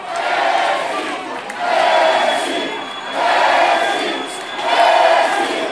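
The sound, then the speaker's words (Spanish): A huge stadium crowd roars and shouts after Messi's goal in the World Cup final. The loud noise surges in four rhythmic waves like a chant, with no single voice standing out. “fue Messi el héroe del juego que apareció en el momento en que su selección lo necesitaba y con este gol terminó la historia del campeonato del mundo que lo consagró para siempre, con estos gritos de fondo.”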